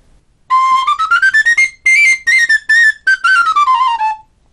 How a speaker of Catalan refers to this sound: Sona bé, no? I tant, és lleig, els forats són pas ben arrenglerats, aquest el vaig fer amb un buidat de 14, que és enorme per un flaviol, i, i és lleig, és lleig. Bon, sona.